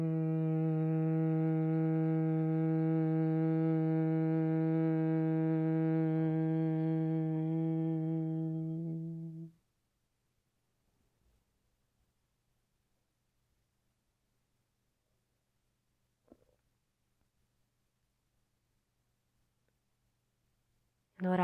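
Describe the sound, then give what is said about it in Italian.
A steady, resonant 'mmm' hum of bee breath during a Brahmari pranayama practice holds evenly for about nine seconds, then stops and leaves near silence with a few faint clicks before another hum begins at the very end. “dolce vibrazione dentro il corpo, come il suono M dell'ape Brahmari.”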